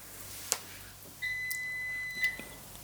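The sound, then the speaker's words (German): A dishwasher's end-of-cycle signal: one steady, high electronic beep holding for just over a second, fairly quiet, with a faint click shortly before it and no talking. “Achso, die, äh, die Spülmaschine ist fertig.”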